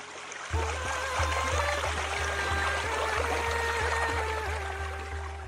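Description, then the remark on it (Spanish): Water pours steadily from a tap, starting abruptly after a brief silence and running continuously, as if someone is washing their hands, with a soft rhythmic low pulse underneath. “El agua lava las manos, la cara.”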